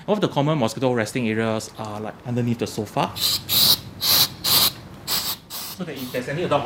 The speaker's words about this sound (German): In Clustergebieten sprühen wir üblicherweise Insektizide in dunkle Ecken des Hauses. Ein beliebter Rückzugsort von Moskitos ist unterm Sofa.